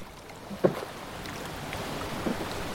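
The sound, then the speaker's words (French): A canoe glides over river water, with a steady wash of flowing water and a couple of soft knocks or paddle splashes near the start and end. No one speaks. “je me suis retrouvée assise dans le canot de mon beau Eugène qui tramait ça”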